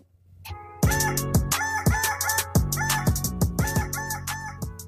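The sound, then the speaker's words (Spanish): A rooster's crow processed with pitch-correction, sliding into stepped, robotic tones over a pumping electronic beat with repeated kick thumps, loud and up front. “el gallo con autotune.”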